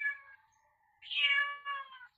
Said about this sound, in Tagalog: may mga nanggugulo na pusa.